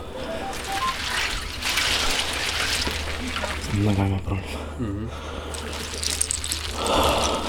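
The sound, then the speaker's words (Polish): Water sloshes and splashes steadily in an ice bath with ice cubes, a person sitting in it, a continuous wet churning with brief voices talking over it in the middle. “Jestem ja i woda i tyle. I kostki lodu.”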